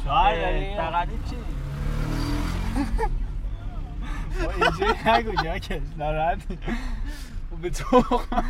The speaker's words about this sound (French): alors là, on est en voiture et on se faufile euh, dans les embouteillages.